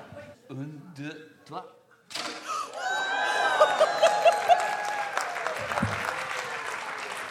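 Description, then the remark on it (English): Brief talk gives way to a champagne bottle, lifted to a 45-degree angle, being opened: an abrupt burst followed by a loud, steady gushing hiss of foam that runs for several seconds, with faint voices mixed in. “All right, it, it, it's going to make a kind of a gushing sound.”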